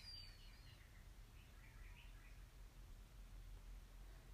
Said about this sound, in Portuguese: mantendo a coluna ereta, escutando o barulho dos pássaros.